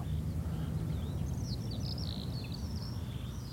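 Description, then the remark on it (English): A skylark sings a rapid, continuous, high-pitched warbling song beside the sea over a steady low rumble of wind or surf. “And just glorious to hear the skylark singing beside the sea.”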